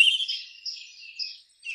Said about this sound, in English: able to share a podcast with minimal talk and maximal, maximal, tuneful and glorious bird song. What a great animal the bird is.